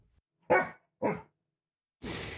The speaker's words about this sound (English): Anyway, Sadie's specialty is answering questions about the government. So if you have any, please send them in, and Sadie will bark once for yes and twice for no.